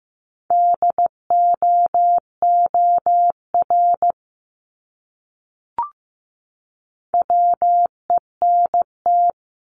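Morse code beeps at 15 words per minute in a steady mid-pitched tone, keyed in quick dots and longer dashes to spell a word, then a pause, a faint click, and another short run of code.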